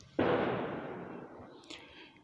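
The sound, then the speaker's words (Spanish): A sharp gunshot cracks outside and rolls away in a long echoing tail, followed about a second and a half later by a fainter, higher pop. “Esos balazos están sucediendo afuera, pero viene bien como, como visitar el pasado.”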